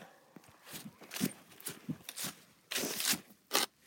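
Repeated wet, crunchy knocks as something is banged onto slushy ice, irregular, building to a few louder scraping, smashing bursts near the end, with no talking.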